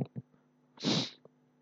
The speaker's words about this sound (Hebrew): מקסימום יש פה חתולה בחוץ, וואי, תקשיבו, יש פה חתולה חולת נפש. חולת נפש,